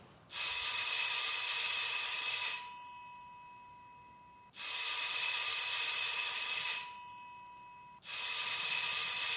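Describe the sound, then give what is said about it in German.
A loud electric theatre bell gives the signal before the performance as the doors close, ringing in three long bursts of about two seconds each, separated by short pauses, with a bright, buzzing metallic tone and no voices. “Das war das Triggerklingezeichen. Die Türen gehen zu.”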